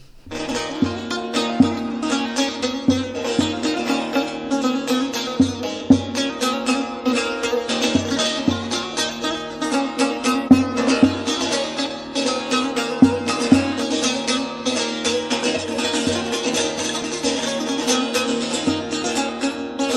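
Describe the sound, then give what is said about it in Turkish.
A full music track plays steadily and loud, with a driving beat, dense layered instruments and sustained harmonic tones throughout, with no talking over it. “Parçayı çalalım direkt şu an.”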